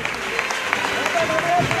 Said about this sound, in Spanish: Y ahora aplaude toda la plaza.